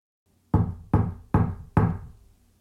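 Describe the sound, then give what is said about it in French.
Four firm, evenly spaced knocks on the wooden door of a house, resonant, each ringing briefly before the next, and no one answers. No voices, only a faint low hum between the knocks. “Il frappe à une autre porte, mais personne ne répond.”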